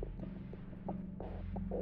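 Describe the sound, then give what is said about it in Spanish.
A low, muffled heartbeat thumps steadily over a deep droning hum, its soft pulses repeating about every third of a second with no voices present. “Pero el latido crecía cada vez más fuerte, más fuerte. Me pareció que aquel corazón iba a estallar y una nueva ansiedad se apoderó de mí.”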